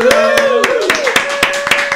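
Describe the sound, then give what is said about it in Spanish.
Applause marking the first recording of the year, a steady run of sharp hand claps, about eight in two seconds at an even rhythm, with a sustained vocal tone carrying on underneath. “Un fuerte aplauso.”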